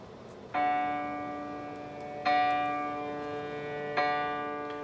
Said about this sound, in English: And this is in Logic Pro. I just I basically just went in and laid single piano notes. And when you lay single piano notes, it's going to sound like this. This is just a single piano note.